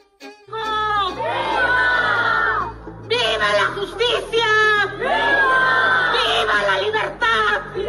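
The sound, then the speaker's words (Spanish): A large crowd shouts and cheers loudly at the Grito ceremony of Mexican Independence, the roar rising in two big swells of many voices yelling together, with a steady hubbub underneath between the surges. “Vamos a escuchar cómo estuvo ese grito y por qué la controversia.”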